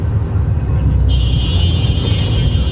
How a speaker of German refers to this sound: So, der Bus fährt jetzt gerade los von Islamabad